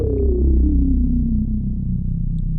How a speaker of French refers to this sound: Et c'est hyper dur à faire ça avec un synthé d'aujourd'hui.